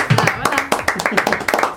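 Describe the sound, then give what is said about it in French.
Several people clap their hands in a quick, uneven burst of sharp, loud slaps that run through the whole moment, with voices talking and murmuring underneath. “Et je réservais mes applaudissements pour la seule présence féminine ce soir”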